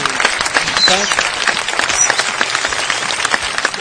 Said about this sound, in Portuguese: vamos, vamos dar uma palmas aqui pros dublês do filme. Fantástico. Genial também. Espetacular